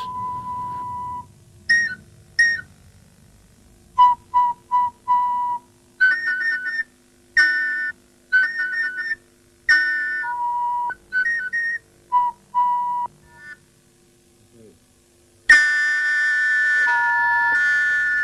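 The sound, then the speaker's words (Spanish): A steam calliope built from about 20 authentic railway whistles, fed by steam from three boilers, plays a halting tune, each note releasing a jet of 100 °C steam: loud shrill whistle notes in short bursts and held tones, ending in a dense, piercing chord over a faint low rumble. “Ahora bien, la ferrocalíope era un engendro peligrosísimo, porque cada nota que yo tocaba salía un chorro de vapor de agua a 100 grados centígrados.”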